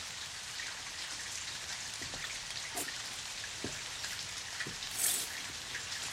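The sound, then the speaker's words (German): Steady rain falls in a dense, continuous hiss, with occasional louder drops striking surfaces. No one speaks; the downpour fills the scene at an even, moderate level. “Was stehst du denn da im Regen rum?”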